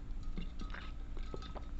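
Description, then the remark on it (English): Quiet mouth sounds of someone sipping water, with a few soft wet clicks and small swallowing noises spread over a couple of seconds against a low background hum. “anyway, sip of water for good luck.”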